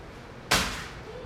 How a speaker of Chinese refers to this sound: 对，好，这个饼被我的脏脚用力的踩碎了，被整个世界给碾碎了。